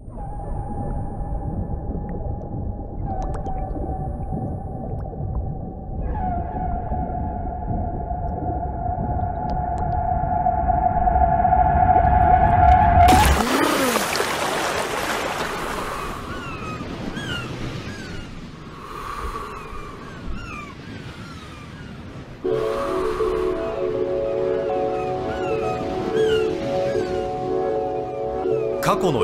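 A rap album's opening intro track plays on its own, built from sustained droning tones that swell into a loud noisy burst midway, then give way to layered, echoing tonal sounds and textures.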